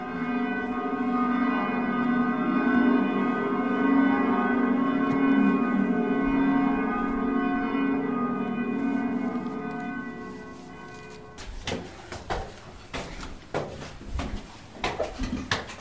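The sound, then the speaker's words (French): Church bells ring from the belfry of Bruges, a sustained wash of overlapping metallic tones with long ringing overtones, then give way to scattered clanks and knocks from about eleven seconds on. “Et bien sûr, les, les cloches qui sont utilisées maintenant, on les voit en réalité euh, qu'on en monte encore.”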